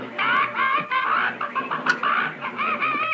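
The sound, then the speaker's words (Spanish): A dwarf character in a Hanna-Barbera cartoon series imitates a rooster to entertain Pérez: a steady, warbling stream of crowing and clucking sounds, fairly loud and mid-pitched, lasting about three seconds with no ordinary speech. “Le dice, mira, yo soy un gaño.”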